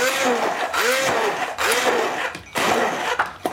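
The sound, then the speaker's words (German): A standard hand blender whirs loudly in several short bursts as it purées about half a liter of tomatoes, its motor pitch dipping and rising as it churns, with brief pauses between pulses. “Und jetzt nehmen wir einen handelsüblichen Pürierstab.”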